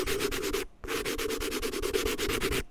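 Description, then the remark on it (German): Chalk scratching in quick, rhythmic strokes, a short burst, a brief pause, then a longer run of steady scraping. Fairly loud and gritty, with no voices. “da ist sie, die Kreide.”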